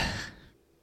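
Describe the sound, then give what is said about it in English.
A single quick sip from a drink: a short, airy slurp that fades into a soft exhale, with no talking. “Ah, taking another sip.”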